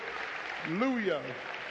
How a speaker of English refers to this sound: Church, amen. Let's get the Lord a hand clap. Hallelujah.